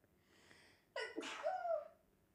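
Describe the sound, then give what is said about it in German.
A single sneeze: a quick sharp intake followed by a bright, breathy burst that trails off, preceded by a second of quiet breathing. “Ich muss kurz niesen.”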